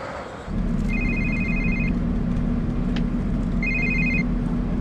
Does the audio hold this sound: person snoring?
no